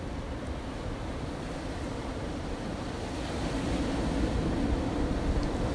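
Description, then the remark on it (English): Steady ocean surf washes in with a broad, continuous rush, swelling slightly louder toward the end as a wave rolls in; no voices, just the sea and a hint of wind. “Just as the ocean waves come in and return back to the sea, allow your breathing come in and to go out.”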